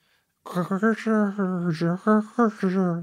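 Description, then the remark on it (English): A voice imitates the thin, tinny mechanical hum of a record-cutting machine while it is cutting, a sustained buzzy drone with a few brief breaks and wavering pitch, fairly loud, with no other sounds around it. “that's more or less what my record machine sounds like when it's cutting”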